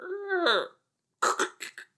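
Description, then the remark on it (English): A voice imitates a door being locked: a drawn-out creaky vocal sweep, a short pause, then four quick, sharp mouth clicks in a loose rhythm. “That was me locking the door.”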